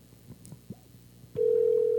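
After some faint clicks and rustling, a loud, steady electronic phone tone starts and holds a single pitch, like an outgoing call ringing while waiting for someone to answer.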